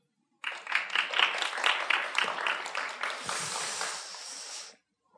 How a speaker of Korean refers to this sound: 하나님께 영광의 박수.